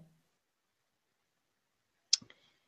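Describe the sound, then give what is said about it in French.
After a long quiet stretch, a short burst of small clicking and tapping noises from cats playing comes as one sharp click followed by a couple of softer ones, then silence. “J'ai entendu un petit. C'est mes chats, ils s'amusent.”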